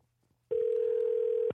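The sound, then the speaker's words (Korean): A steady telephone call tone starts after a short quiet lead-in and holds one unbroken mid-pitched note for about a second before cutting off. No one speaks over it. “1, 2, 3 하나님 전화 한번 걸어보겠습니다.”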